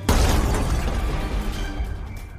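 A sudden loud crash erupts near the start as a heavy metal brazier is pushed up and over and topples, clattering, followed by a sustained rumbling, rattling tail that stays loud before easing slightly.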